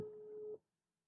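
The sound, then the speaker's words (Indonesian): A telephone ringing with a call from a partner: one steady electronic tone holds for about half a second, then cuts off into silence. No voices. “ah telepon nih pacarnya.”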